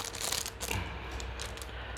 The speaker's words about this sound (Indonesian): Aduh, kenapa paling susah tuh buka ini sih plastik kuahnya nasi.